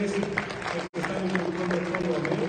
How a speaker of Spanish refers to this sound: Un aplauso a nuestro Señor